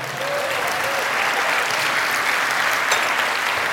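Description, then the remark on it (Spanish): A church audience applauds Christ, a dense wash of many hands clapping at an even loudness for several seconds, with a faint voice briefly audible early on. “Dale un aplauso a Cristo, amado hermano.”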